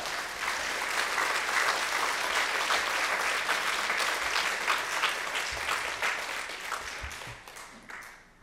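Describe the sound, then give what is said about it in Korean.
A church audience breaks into sustained applause welcoming a pastor coming forward to preach, a dense wash of many hands clapping at steady loudness for several seconds before tapering off at the end. No one speaks over it. “큰 박수로 맞아주셔서 감사합니다.”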